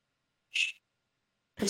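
A cat gives a single short, high-pitched, soft meow, followed by a pause of silence before another brief sound begins at the very end.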